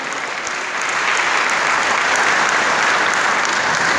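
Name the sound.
audience applause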